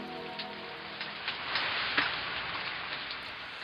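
Steady rain patters down in a dense, continuous hiss, with scattered drops tapping on a hard surface. The downpour stays even throughout, and no voices are heard.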